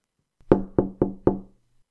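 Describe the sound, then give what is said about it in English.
Four quick, solid knocks on a locked wooden door in a steady rhythm, clear, with no voices around them. “Is there someone at the door?”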